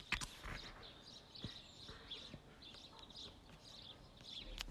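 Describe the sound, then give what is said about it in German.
Soft, scattered bird chirps over quiet outdoor ambience in a village in Bavaria, Germany, with a few faint knocks and rustles in the background and no one speaking. “Hier ist ein bisschen Vogelgezwitscher.”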